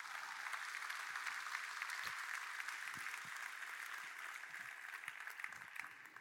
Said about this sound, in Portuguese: Quem pode dar um aplauso ao Senhor Jesus nessa manhã?